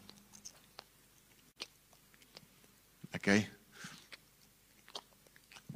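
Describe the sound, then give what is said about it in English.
A voice mimics a cow chewing cud with a quick burst of wet, crunchy mouth noises, followed by a softer smacking sound, amid brief spoken words and small clicks. “And, Have you ever looked at a cow chewing the cud?”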